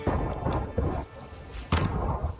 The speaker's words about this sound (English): That's the sound of incendiary ammunition being used by Russian forces in Nikola. This type of round contains a chemical that, upon hitting hard obstacles, causes that obstacle to burst into flames.